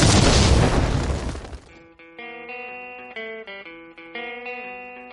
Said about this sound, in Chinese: 下面马上进入到今天的生活大爆炸环节， 瞬间爆炸。